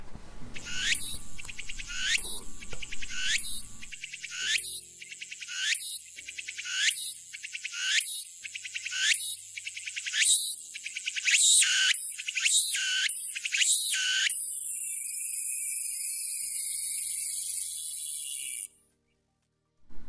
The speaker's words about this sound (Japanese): あのちょっとパートが変わるんですけれども、はい、つくつく帽子どんなんだったかなというのもあると思いますので音を用意意しておりますので、ぜひ聞いていただきたいと思います。じゃあどうぞ。